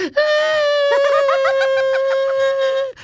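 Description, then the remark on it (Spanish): A man's voice imitates crying, drawing out one loud, sustained wail for about three seconds, with a sobbing wobble pulsing through the middle before it cuts off. “digo, ¿qué pasó? ¿Por qué lloras?”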